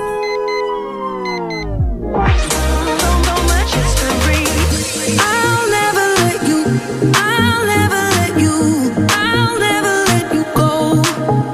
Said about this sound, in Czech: pokud byste tuhle písničku chtěli přidávat do telefonu, ale nemusíte, stačí poslouchat nás